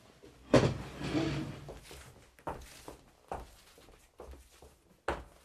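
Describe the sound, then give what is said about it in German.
A door is opened with a sharp clack followed by a brief drawn-out creak, then several softer knocks and shuffling steps, with no one speaking. “Die Tür ist offen.”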